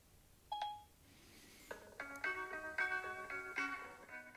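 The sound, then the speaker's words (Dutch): A single short electronic beep sounds from a device after the button on its right side is pressed, followed after a pause by music starting to play through Spotify and continuing to the end. “Dan kun je, of een andere artiest horen, dan kun je gewoon weer rechts aan de zijkant op de knop drukken. Luister, knop.”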